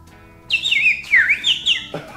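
Bright, warbling bird chirps in three quick bursts of sweeping, high-pitched notes, fairly close and clear, with faint background noise and no talking.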